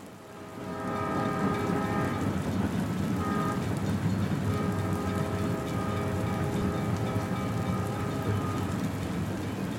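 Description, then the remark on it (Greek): A steady, continuous rumble of a sleeping-car train rolling along rails on a Sunday evening in rain, with sustained tonal whine over dense low-frequency noise, rising in the first second and then holding loud and constant without voices. “Κυριακή βράδυ το τρένο ξεκίνησε στις 8 μετά μεσημβρία.”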